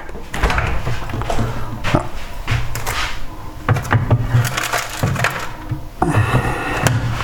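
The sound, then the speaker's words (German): Items are handled and set down inside a refrigerator, with a series of irregular knocks, clunks and rustles over a steady low hum, and a door or drawer moving. “Und noch nochmal in den Kühlschrank.”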